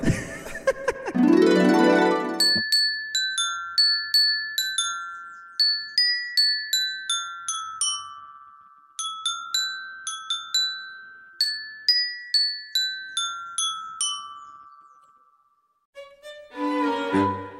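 A simple folk children's tune is picked out one note at a time on a bright, ringing instrument, steady and unhurried. Brief laughter comes before it and a voice follows.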